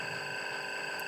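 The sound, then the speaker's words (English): A phone alarm goes off as a steady, continuous electronic tone, bright and buzzy with layered high pitches, holding at an even volume throughout with no one talking. “Oh, that's my alarm going off.”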